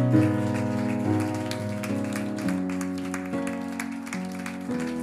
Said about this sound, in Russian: Давайте все вместе встанем и если вы благодарны Ему за, присутств... за Его присутствие здесь, давайте, давайте прославим Его аплодисментами.